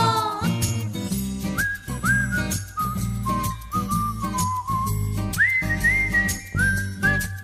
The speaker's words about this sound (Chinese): 不知道大家有没有从这首老歌里面听出一些什么特别的元素呢？有一点点口哨的声音加入到了歌曲里面，给人满满的快乐感。